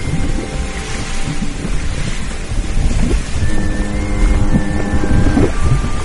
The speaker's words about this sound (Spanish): Al punto que un día los capitanes de los barcos de las grandes rutas advierten que los barcos avanzan lentamente. De 30 nudos bajan a 20, a 15, y los motores jadean y las hélices se deforman.